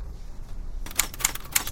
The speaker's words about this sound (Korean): 김 작가는 정마루의 책을 타자기로 치기 시작했다